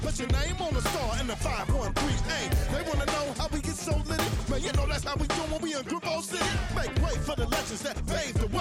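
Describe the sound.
A funk rap song plays with a steady, punchy beat and a rapping male vocal riding over dense, full instrumentation, loud and continuous from start to finish.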